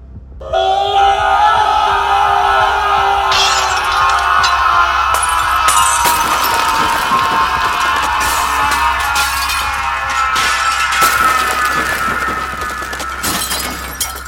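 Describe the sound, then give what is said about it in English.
A loud, piercing scream from a captive creature holds steady for over ten seconds while glass bulbs shatter around it in repeated sharp bursts and tinkling breaks and candle flames are snuffed out, intense throughout. “The scream hit like a bomb. Bulbs and candle flames shattered and snuffed, plunging the room into darkness, save for the eerie green glow of the liquid.”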